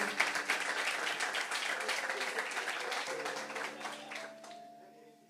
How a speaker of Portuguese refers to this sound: Diga glória a Deus, diga eu recebo e dê um aplauso bem forte para Jesus.